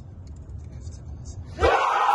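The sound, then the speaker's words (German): A low, steady rumble inside a team bus, then a sudden burst of loud cheering and yelling from a group of players rocking the bus on learning their next opponent is FC Basel, carrying on to the end. “und dann kumpeln sie den Bus ja. umeinander, haben Freude und es ist, es, ich komme gerade Hühnerhaut über, weil ich, es ist etwas vom Grossartigen überhaupt.”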